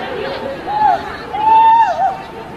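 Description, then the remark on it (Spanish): A female football referee cries out in pain after being hit by a shot during a match against Real Madrid, two drawn-out wails and a short yelp, rising above the steady murmur of a large crowd in the background. “Escuchen los gritos de dolor de la árbitra.”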